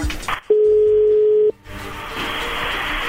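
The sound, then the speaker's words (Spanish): A telephone line rings out: one steady, low-pitched ringback tone lasting about a second, set against a hissy phone-line background, with no one speaking. “Bien, entonces ahí le va a marcar.”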